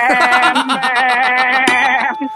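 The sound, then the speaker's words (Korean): A man on a phone call imitates a cicada's cry but it comes out as a wavering, goat-like bleat, held steadily for about two seconds with a rapid, trembling pulse before cutting off. “그 염소 아닌가, 염소? 염소잖아요. 아직 유충이라서.”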